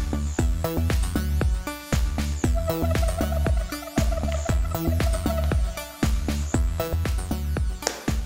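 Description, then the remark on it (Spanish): Upbeat instrumental music plays on its own during a roughly 20-second pause while the speaker drinks water, with a steady, punchy beat and bright melodic lines, loud and continuous throughout, with no talking. “Vamos a hacer una pausa de 20 segundos para poderle dar un trago, pero te vas a quedar con música.”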